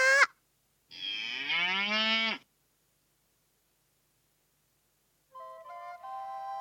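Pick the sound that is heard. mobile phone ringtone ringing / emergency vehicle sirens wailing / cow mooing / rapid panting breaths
cow mooing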